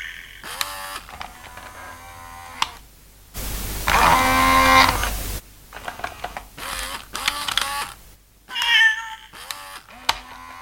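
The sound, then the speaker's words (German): A cat meows repeatedly, a string of drawn-out, wavering cries, interrupted midway by a couple of seconds of loud mechanical whirring from a sewing machine as the cat's owner sews. “bei seinen Näharbeiten und treffen dort auf seine Katze”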